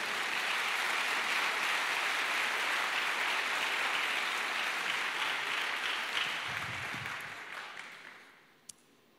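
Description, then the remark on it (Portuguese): An audience applauds loudly in a dense, steady wash of clapping that holds for about seven seconds, then tapers off and fades, ending with a single sharp click. “Irmão, pode aplaudir com força, né?”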